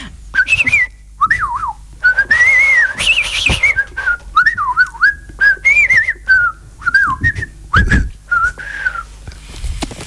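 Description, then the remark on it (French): A person whistles a lively, warbling melody with quick pitch slides and trills, fairly loud, in short phrases with brief pauses and a few low thumps underneath. “tu, tu, tu siffles bien.”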